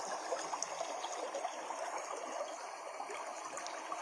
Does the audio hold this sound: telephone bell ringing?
no